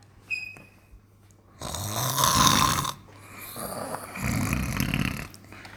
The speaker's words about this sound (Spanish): Extrañado, el cazador se preguntó. ¿Cómo puede roncar tan fuerte una cañita? Entraré a ver si le pasó algo.